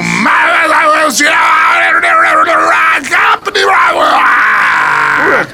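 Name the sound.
man yelling loudly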